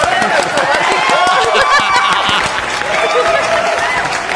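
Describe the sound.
Steady, dense clapping from a crowd fills the whole stretch at an even loudness, with scattered voices calling out and laughing over it.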